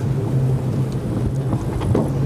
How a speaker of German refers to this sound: Wir werden jetzt hochgezogen hier. Aber wir sitzen schon im Bob oder wie auch immer man das Ding hier nennt. Und angeblich ist sie noch schneller als die erste Bahn. Wir sind im Blomberg-Blitz. 40 km/h, Digga. So schnell war ich eigentlich noch nie.